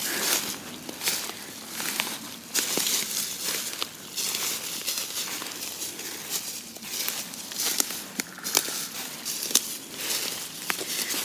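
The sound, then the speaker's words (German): Footsteps crunch and rustle through deep, dry fallen leaves in the Windener Wald forest, a steady irregular shuffle of crackling crunches with sharp clicks of twigs, continuous and fairly loud with no talking. “So, wir kämpfen uns hier weiter durch den Windener Wald, durchs hohe Laub, was hier überall verteilt liegt.”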